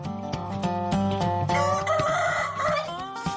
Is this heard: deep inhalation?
no